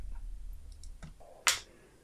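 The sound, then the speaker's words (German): A few light clicks and rattles, then one sharp, bright clatter that quickly fades as dice are rolled and land on a table, coming up a four. No one speaks. “Sven äh, würfelt bitte wieder”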